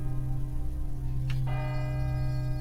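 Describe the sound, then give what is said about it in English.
A single bell strike sounding the hour at four o'clock lands partway through, its bright ringing tones sustaining to the end over a low, steady hum from an earlier ring. No one speaks. “As the bell sounded the hour, there came a knocking at the street door”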